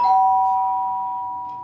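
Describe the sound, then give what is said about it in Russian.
A doorbell chime rings once, its clear electronic tone ringing out and slowly fading over a second or two, with no voices and only faint background hum. “Кто там?”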